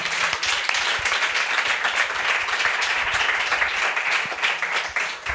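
Sustained audience applause for the band, a dense, steady wash of many hands clapping at an even loudness throughout, with no speech over it.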